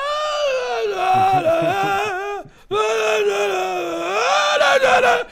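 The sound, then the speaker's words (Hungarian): A voice loudly imitates an old man on a scooter singing folk songs at the top of his lungs while passing by on Betlen Street, with Doppler effect: sustained wailing tones rising and bending in pitch, a brief break, then a second swelling, strained sung phrase. “És így Doppler effektus, elkezdett hallani messze, hogy”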